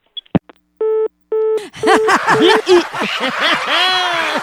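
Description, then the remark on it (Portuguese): A couple of sharp clicks as a phone call is hung up, then a telephone busy tone beeping in steady, evenly spaced pulses, soon buried under a burst of loud, growing laughter from several people. “Seu, olha, eu vai um negócio que eu vou desligar que eu não quero nem ouvir tu falar, vice.”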